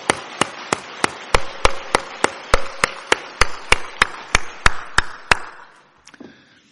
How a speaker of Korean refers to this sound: 아, 모든 성도님들 서로 격려하고 감사하는 의미에서 다시 한번 박수 한 번 올려 주겠습니다. 네. 아, 그리고 하나님께 박수 다시 한번 영광의 박수 올려드리겠습니다.